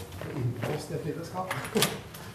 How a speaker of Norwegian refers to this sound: Her er det egen bryter som åpner alle dører. Ja, nettopp.